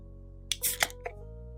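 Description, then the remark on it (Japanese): A beer can is cracked open for a toast: a sharp metallic click, a short fizzy hiss of escaping gas, then a couple of lighter clicks against a quiet background with no talking. “聞こえましたかね開けました。おビールの匂いが。”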